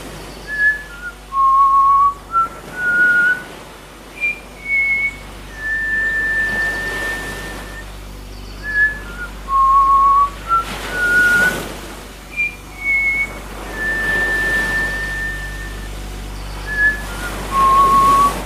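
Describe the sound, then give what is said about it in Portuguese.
A clear whistled melody of gliding and held notes, played through twice in a slow, wistful phrase over a soft, steady background wash like surf. “Ela concentrou-se e assobiou, desta vez com tal emoção e saudade que aquela linda melodia tomou força e se espalhou rapidamente pelo continente e pelas ilhas, enchendo de música o oceano.”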